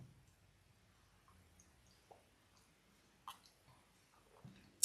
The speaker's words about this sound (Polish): a potem będą trzy łyki wody z miedzianego kubka.